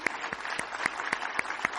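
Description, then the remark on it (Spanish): A church audience claps for visiting brethren to show their affection, in a steady, rhythmic beat of sharp, bright hand claps, roughly four per second, filling the short moment with moderate, even applause and no talking. “Vamos a dar un aplauso a los hermanos, a mostrarles nuestro cariño”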